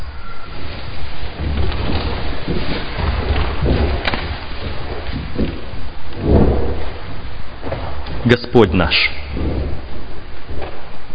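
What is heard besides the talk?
rain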